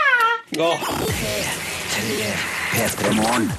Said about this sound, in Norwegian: Du hører det skrik i bakgrunnen her. Det der, ja. Eh, og vi hørte jo på et klipp av Anders Jacobsen før låta.